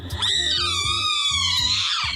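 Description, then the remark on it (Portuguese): A rat hit by a gunshot gives a shrill, piercing shriek that holds for about two seconds, wavering slightly in pitch, loud and unbroken, over a low, irregular thumping underneath. “Quando meu pai acertava, eles gritavam.”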